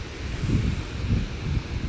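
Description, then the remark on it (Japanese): Strong wind buffets the microphone in low, rumbling gusts while rough surf churns steadily underneath at Bondi Beach in Sydney, Australia, after rain has started, with no voices, a continuous blustery roar throughout. “今日は静かなビーチでで風が強いのでちょっと波の音がね荒いので”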